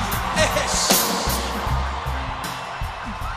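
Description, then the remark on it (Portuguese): A large stadium crowd in Rio roars and cheers from the stands, a dense, continuous wash of many voices with some chanting tones underneath, loud and sustained throughout. “Rapaziada da arquibancada, dá um alôzinho pra mim aí, vamos lá!”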